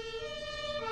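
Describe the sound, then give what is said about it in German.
A siren of the Fernwald fire brigade's fire engine sounds loud, holding a steady, bright electronic tone throughout with no voices over it. “Das ist die Feuerwehr aus dem Fernwald.”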